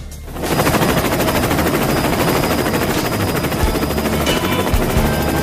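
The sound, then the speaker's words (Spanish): A helicopter flies overhead, its rotor chopping in a steady, loud, rapid pulse with a continuous engine roar. No one speaks. “llegó la hora de ir a buscar a la estupenda secretaria ejecutiva, Anastasia Steele, al 7 de Pajaritos, en su espectacular helicóptero.”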